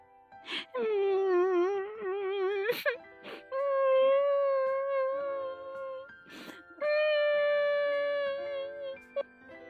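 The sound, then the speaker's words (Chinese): A little girl cries beside a lotus pond in long, wavering wails, three drawn-out sobbing phrases broken by sharp gasping breaths, loud and high-pitched with a trembling, tearful quiver. “卷卷的哭声被荷花姐姐听到了，荷花姐姐看着可爱的卷卷哭得这么伤心，连忙问道：“小姑娘，你怎么哭啦？”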